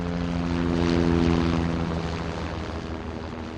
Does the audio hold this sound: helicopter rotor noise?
yes